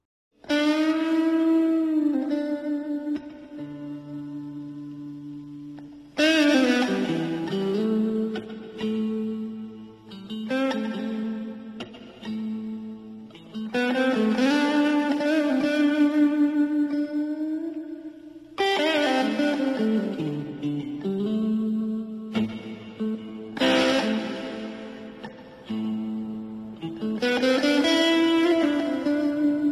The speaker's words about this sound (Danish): Og jeg synes lige, vi skal høre et stykke af åbningstemaet, der er under opening credits i den her film. Prøv at lytte til dem.